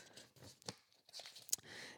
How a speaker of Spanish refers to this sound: Eh, buscando aquí en mis apuntes, se escuchan las hojas.